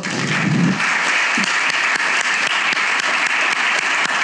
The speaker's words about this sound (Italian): siamo molto felici, onorati, io in particolare, di avere come primo ospite ad aprire questo nuovo format eh, Valia Santella Bella, che accoglierei con un applauso.